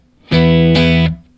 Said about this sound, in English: So you can hear it right now. If I if I play this, um, here's my guitar without the AD999.